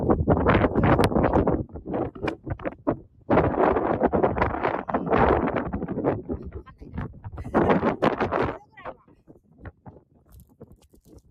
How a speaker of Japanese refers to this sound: 風の音がね、ちょっとすごいと思うんですけれども。